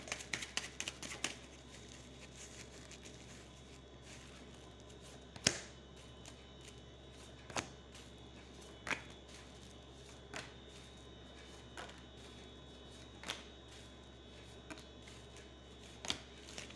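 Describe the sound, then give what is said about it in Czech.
Tarot cards being shuffled for a reading about a partnership: a quick burst of riffling at the start, then sparse, sharp card snaps and slaps at irregular intervals over a steady low hum, with no talking. “Eh, míchám u toho karty a podíváme se, co nám Tarot řekne o tomto partnerském stavu.”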